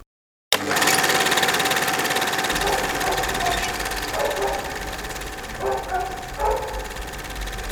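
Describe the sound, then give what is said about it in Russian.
A neighbor's dog barks excitedly, a few scattered barks rising over a steady mechanical hum and background noise, with no one talking. “Прости, я смеюсь, у меня собака у соседей сошла с ума, и я, прям вижу на, на записи такой руф, руф, руф.”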